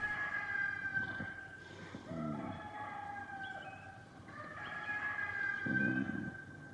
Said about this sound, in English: he just waits for the rooster to crow, and the rooster crows